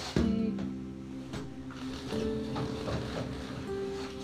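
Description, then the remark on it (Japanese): The motor of an old, heavily rusted sewing machine hums steadily for a few seconds, a low droning whir with a few mechanical clicks and knocks along the way. It is fairly loud, with no one talking. “サビがすごいなうんうんうん本当よくでもモーターが生きててよかったです”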